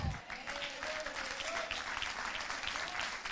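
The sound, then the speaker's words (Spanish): An audience applauds Jesus loudly and steadily, a dense wash of many hands clapping at once with no clear individual beats, holding a sustained level throughout. “Si usted lo cree, denle un aplauso fuerte a Jesús, el mejor aplauso que usted pueda darle.”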